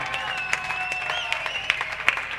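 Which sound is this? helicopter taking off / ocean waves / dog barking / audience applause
audience applause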